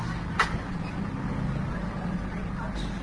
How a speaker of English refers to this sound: We sit here and wait on the bus for quite some time, and then we finally pull off.